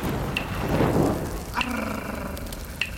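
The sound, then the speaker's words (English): Steady rain hisses throughout while a low rumble of thunder swells early on, followed by a couple of sharp cracks from lightning strikes. “Then I want you to watch a lightning strike the ground, strike the sand, and then strike the grass.”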